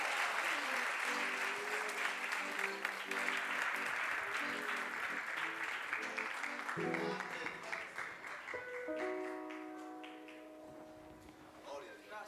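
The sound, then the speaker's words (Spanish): A church audience claps for the Lord for about twelve seconds, a dense wash of applause with scattered voices and sustained musical tones rising through the second half as the clapping slowly thins. “De un aplauso al Señor.”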